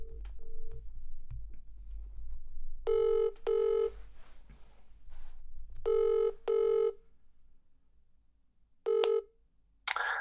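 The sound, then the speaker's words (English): A phone call ringing tone sounds in repeated double bursts, two short buzzy rings, a pause, then two more and a final single ring, fairly loud and clear with no talking over it. “Is that ringing?”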